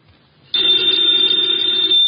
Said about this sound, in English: Ladies and gentlemen, the ringing of that phone bell brings you mystery, adventure.